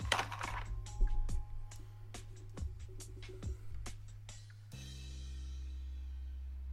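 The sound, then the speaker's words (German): A small four-sided die is rolled, clattering and bouncing across a hard surface in a rapid series of sharp ticks for several seconds, then settles showing a four, leaving a steady low hum. “Würfel mal ein W4.”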